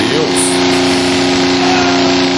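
A motorcycle engine drones loudly and steadily outside, its buzzing tone holding constant for a couple of seconds amid broad rumbling street noise.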